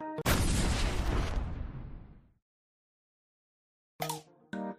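A loud, sudden gas explosion in a house, set off by striking a match after the gas valve was opened, bursts out at once and rumbles down over about two seconds, followed by silence, then two short bright clattering hits near the end.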